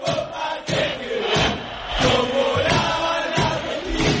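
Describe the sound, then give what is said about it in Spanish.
The Argentina team chants loudly in unison in its locker room, a football team's song with rhythmic, rising and falling sung phrases and rough, shouty voices that never let up. “Este es el sonido del vestuario de Argentina.”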